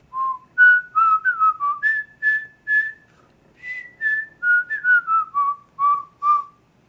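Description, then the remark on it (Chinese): Someone whistles the melody of the Chinese fishing song 'Bu Yu Ge' alone: clear, mid-high notes rising and falling in two short phrases separated by a brief pause, steady and moderately loud throughout. “所以我直接很自然的想到捕鱼歌，想着想着就吹着口哨哼起来。”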